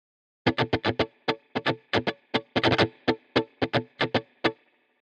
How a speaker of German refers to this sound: Diesen Sound erzeugst du, indem deine linke Hand alle Saiten abdämpft und mit deiner rechten Hand den Rhythmus spielst.